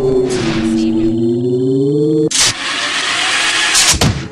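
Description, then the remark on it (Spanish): A sci-fi tractor beam powers up: a loud, low humming drone creeps slightly upward in pitch, then abruptly bursts into a dense, sustained rushing roar that fills the rest of the sound. “Activa el rayo tractor codos. Yo pondré el curso hacia nuestro mundo.”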